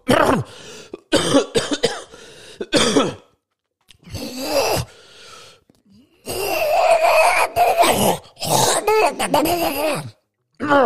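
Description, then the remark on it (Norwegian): A voice imitates a man in a cinema clearing his throat and coughing as he is moved to tears during a film, in a series of rough, voiced bursts separated by short pauses, with a strained groan-like quality mixed in. “Du hører, du hører bestemt på, på kremtinga at han kjems, og hører han reiser i gang.”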